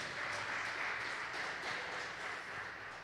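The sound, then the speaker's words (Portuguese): An audience applauds the Lord steadily, a dense wash of many hands clapping at an even level for a few seconds, with no voices standing out. “Vamos aplaudir ao Senhor por isso, queridos.”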